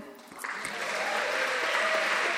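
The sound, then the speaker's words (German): A church crowd breaks into applause for Tobi Bolliger, who made the slides for the sermon. Many hands clap in a dense, steady wash that swells slightly after the first half-second and holds at a moderate level to the end. “Und gebt doch dem Tobi Bolliger äh, Applaus.”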